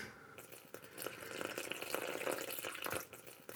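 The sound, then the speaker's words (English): 80 grams of water pours steadily for a few seconds into a mixing bowl of bread flour, yeast and salt for a dough, a continuous splashing trickle with small uneven surges and no voices. “80 grams of water.”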